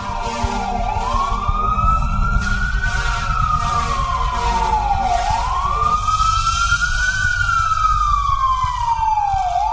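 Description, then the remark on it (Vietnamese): An emergency vehicle siren wails in slow rising and falling sweeps, loud, over a steady low engine and road rumble as the vehicle speeds along, rushing an elderly woman to emergency care on Lunar New Year's Eve. “Rồi sau đó là tiếng xe lao vùn vút Đưa bà đi cấp cứu”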